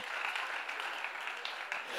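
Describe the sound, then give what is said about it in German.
A crowd claps together in a steady, dense burst of applause lasting a couple of seconds, loud and even throughout with no voices standing out above it. “Können wir klatschen nochmal?”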